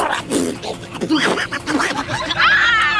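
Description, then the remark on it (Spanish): A voice imitates a paper shredder as documents are fed into its slot, with a few seconds of buzzy, grinding mouth noises and snickering bursts, ending in a higher whirring squeal, fairly loud. “Soy el sonido de cómo es que los papeles hacen pedacitos, güera.”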